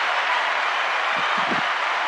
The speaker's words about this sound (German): Aber warte, ich gebe euch mal dafür, dass ihr euch dazugeschaltet habt, bekommt ihr mal einen kleinen Applaus von mir.